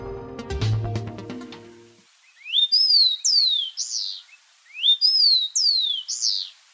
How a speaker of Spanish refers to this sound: Este es el copetón común, que se puede escuchar y observar en Bogotá casi en todas partes y a todas horas. Es capaz de vivir en praderas abiertas, estepas, bosques, plantaciones agrícolas y ambientes urbanos.